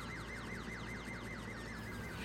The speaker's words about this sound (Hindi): नहीं तुम सुनो एम्बुलेंस है